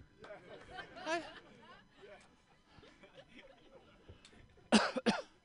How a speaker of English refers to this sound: Coughing, Rona, don't care, don't give a crap.